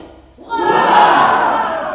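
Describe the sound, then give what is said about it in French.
A crowd of several million bursts into cheering hurrahs after a brief quiet moment, greeting the moon rising on the horizon at about 7 o'clock; the roar swells quickly and holds as a loud, dense, sustained wall of voices. “Plusieurs millions de hurrahs saluèrent son apparition.”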